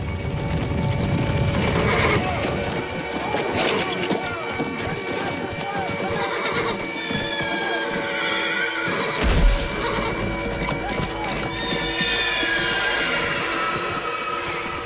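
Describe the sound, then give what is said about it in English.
Several horses neigh and whinny repeatedly over a steady clatter of hooves clip-clopping, a busy scene with indistinct voices mixed in and one low thump partway through. “Many of the horses are not even saddle broken.”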